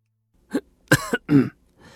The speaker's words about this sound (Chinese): 以他这么大的年纪，竟然有些恍惚。他尴尬的咳嗽一声